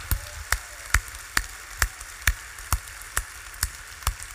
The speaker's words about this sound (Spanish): ¿Se pueden poner de pie todos esos estudiantes para que le demos un fuerte aplauso nuevamente? Aleluya.